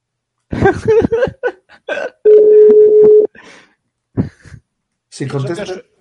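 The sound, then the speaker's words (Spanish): A phone call from the live program Level Up rings through: one steady, fairly loud ringback tone lasting about a second, with people talking briefly before and after it. “eso que suena y vibra es vuestros teléfonos.”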